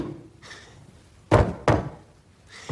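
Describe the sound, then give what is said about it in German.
Heavy thumping stomps of feet on a floor, two quick loud beats followed by a pause and another stomp, in a steady rhythm with no voices. “Stampf diesen Rhythmus.”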